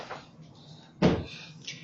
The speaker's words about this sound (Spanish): ya nos abrieron la puerta, este, pausa el programa.